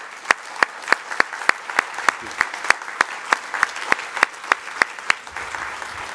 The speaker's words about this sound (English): Um, so thank you so much for coming. Let's give our deans a real round of applause.